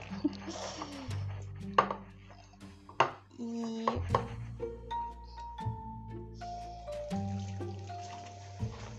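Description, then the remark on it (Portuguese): Dishes being washed under running tap water, with steady splashing and repeated clinks and clatters of pots and cutlery, while a person talks over the noise. “Talvez eu esteja falando meio baixo mas eu espero que não esteja sendo impossível de me ouvir, apesar de obviamente o microfone estar tá mais distante da minha, da minha boca, porque eu tô lavando a louça, né?”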